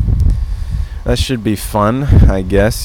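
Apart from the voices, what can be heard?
wind blowing outside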